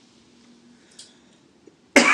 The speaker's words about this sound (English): Uh, Sorry for coughing still.